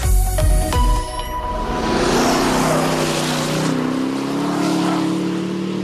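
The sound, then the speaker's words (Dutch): The engine of an Aston Martin DBX SUV starts with a few sharp clicks and knocks, then a steady, loud motor drone rises in pitch as the SUV pulls away, sustained without any talking. “En daar gaat hij, de DBX. Zonder twijfel belangrijkste Aston Martin in jaren.”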